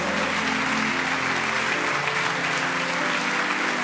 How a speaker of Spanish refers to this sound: Y amado hermano, si tú crees en su promesa, levanta una ofrenda de palmas en esta mañana.